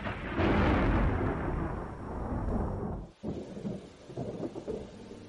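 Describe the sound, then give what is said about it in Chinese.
A long, heavy roll of thunder from lightning overhead rumbles loudly for about three seconds, then breaks off into a softer, uneven patter of large raindrops striking dusty ground and lighter crackling. No one speaks. “又一个闪，正在头上，白亮亮的雨点紧跟着落下来，极硬的砸起许多尘土，土里微带着雨气。”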